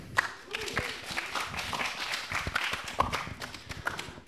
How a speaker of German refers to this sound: Danke dir. Ein Applaus für Emilia, für Sharon.